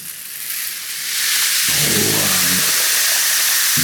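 A homemade rainstick, a tube set with nails in a spiral and filled with rice, is turned over, its rice trickling down in a steady, bright hissing patter that swells louder after the first second and keeps streaming to the end.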